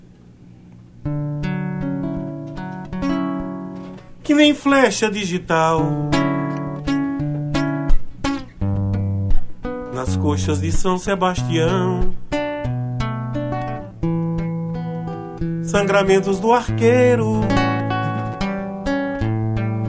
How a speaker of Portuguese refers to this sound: Mais de música ainda hoje? Sim, tem mais música pra gente ouvir aí?